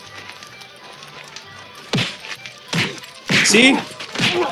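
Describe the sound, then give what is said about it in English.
A series of sharp, loud movie-style punch impacts from a fistfight lands in quick succession, the same punch sound used over and over again, each a heavy whack with a brief crackling tail, while a voice speaks briefly over the action. “These punches yeah.”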